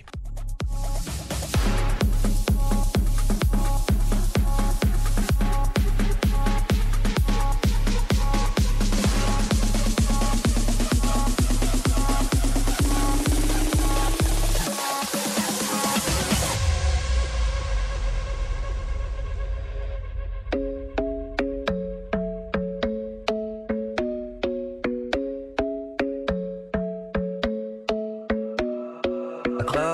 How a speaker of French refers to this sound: Aujourd'hui, je vais vous faire partager euh, trois nouveaux titres clubbing et on commence tout de suite avec le bootleg du jour